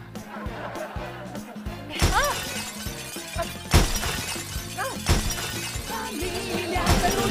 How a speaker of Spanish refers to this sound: Pero se están aventando platos. ¿Por qué no intervienes? Porque entre más platos rompan, menos platos lavo yo.